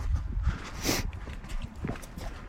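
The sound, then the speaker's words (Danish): Footsteps crunch over fine pea gravel at an unhurried walking pace, each step a short gritty scrunch against a faint outdoor background with no one talking. “Nu er vi havnet i grus her. Perlegruset, ikke?”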